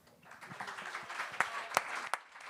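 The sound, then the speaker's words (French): Scattered applause from couples in a show audience, asked to clap if they are in a couple: a steady patter of many hands with a few sharper, louder claps standing out near the end, no voices over it. “Est-ce qu'il y a des personnes en couple ici ce soir? applaudissement?”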